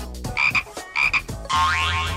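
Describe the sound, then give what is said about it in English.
A frog, a rare French forest-dwelling frog named Fabian kept in a box, croaks twice in short, throaty bursts, then lets out a longer warbling croak that rises and falls. Loud, with no talking over it. “There's a frog in this box.”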